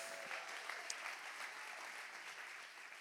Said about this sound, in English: Give them a big clap one more time. Come on.